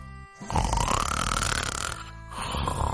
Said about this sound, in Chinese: 没一会儿，表叔就打起了呼噜，吵得哼哼猪翻来覆去睡不着。 唉，表叔的呼噜声也太响了，这怎么睡啊？